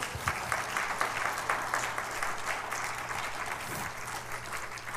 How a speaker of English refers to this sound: If you believe that, can you clap your hands unto the Lord?